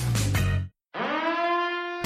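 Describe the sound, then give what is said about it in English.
A sci-fi time machine sound effect played on the WCGO radio show Your Talk: a loud, rumbling burst cuts off into a brief silence, then a bright, buzzy synthesized tone swoops upward and holds steady before ending abruptly. “That sound you hear is my time machine letting me know it's time to return to our own world.”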